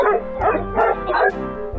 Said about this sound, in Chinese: 他还冲牛不停的吠叫。